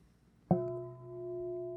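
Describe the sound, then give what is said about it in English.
A single bell is struck once with a sharp attack, then rings on with a steady, clear tone that sustains without fading much. No one speaks over it. “I hit, I hit the bell.”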